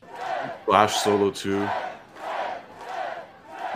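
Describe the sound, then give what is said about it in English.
A crowd cheers loudly, with sharp yelling shouts early on giving way to a swelling, sustained roar; a man's voice briefly speaks over it. “That's the five star cheer.”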